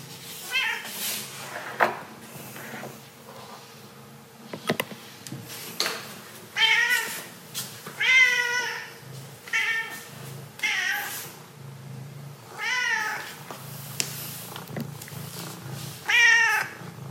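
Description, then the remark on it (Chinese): A cat that wants food meows to its owner over and over, about seven or eight insistent, high-pitched calls with a wavering rise-and-fall tone, spaced a second or two apart and fairly loud over a quiet background. “它口渴，它想要喝水，它一直叫我妈去装水的这个画面”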